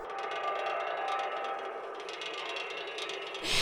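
A steady mechanical whirring made by wind passing through something, with a fluttering, clicking texture, like a huge tape spooling backward, holding level throughout before a brief brighter hiss at the end. No voices.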